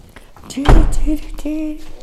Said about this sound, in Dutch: Ik zit in de koelkast en dat hoor je waarschijnlijk heel goed. Jee! Ik, het liefst blijf ik hier. Het klinkt zo chill.